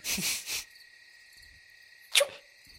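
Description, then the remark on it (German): A short, forceful sneeze bursts out near the start, over a steady high-pitched chirring of crickets that continues throughout, with another brief sharp sound later on. “uh, Gesundheit.”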